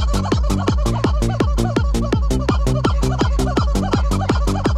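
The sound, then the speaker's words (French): A squeaky plastic chicken toy, shaken continuously by a playing horse, squawks over and over in a steady rhythm, roughly three loud honking squeals per second, without pause. “Non, je déconne pas, le cheval a chopé le poulet, il le secoue pour faire du bruit.”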